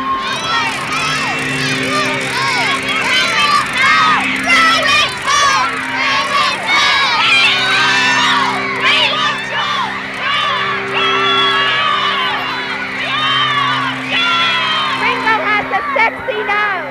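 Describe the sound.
A large crowd of fans screams and shrieks continuously at high pitch, loud and dense throughout, with overlapping voices whooping and yelling and a steady low hum underneath.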